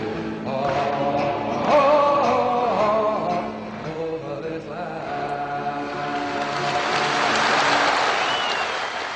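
A song's last sung notes fade into steady audience applause, a dense wash of clapping that swells toward the end and keeps going without a break.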